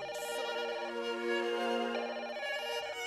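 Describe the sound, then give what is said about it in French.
A telephone rings with a melodic electronic ringtone, its bright repeating tones shifting pitch every second or so, steady for about three seconds with no voices. “L'instru qui frappe, le rappeur cogne et puis le téléphone qui sonne.”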